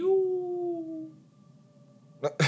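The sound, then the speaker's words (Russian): A steady whistling howl slowly sinks in pitch and fades over about a second, like something falling, followed by quiet and then two short, loud noisy bursts at the end. “Это звук падения.”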